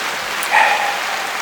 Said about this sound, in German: Warte, du kriegst Applaus